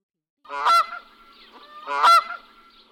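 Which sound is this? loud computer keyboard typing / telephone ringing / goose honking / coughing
goose honking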